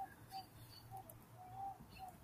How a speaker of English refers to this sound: There's a freaking Barbary dove. That's what they sound like. It's annoying.